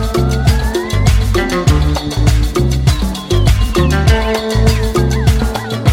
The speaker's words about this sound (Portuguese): com o que o … fala na canção …